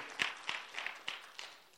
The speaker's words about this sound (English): Come on. That's something worth clapping for right there.